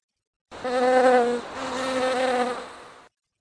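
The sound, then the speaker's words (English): A steady insect buzz hums for about two and a half seconds, dipping slightly midway as a honeybee drones past, flying off from its hive, with no voices present. “As Violet left the hive, she waved goodbye and whizzed off to begin the work she loves so much.”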